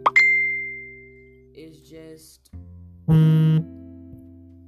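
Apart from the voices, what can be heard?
phone notification chime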